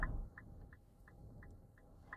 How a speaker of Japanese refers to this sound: 車の中ってこうやってあのウィンカーの音とか入っちゃうんで、あんまり良くないのかなーって思うんですけどね。